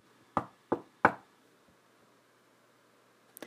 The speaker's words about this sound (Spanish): Soar llegó a la puerta de una pequeña cabaña, dio tres golpecitos y esperó.